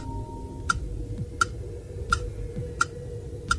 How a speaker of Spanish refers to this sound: Este es el tic-tac del tiempo.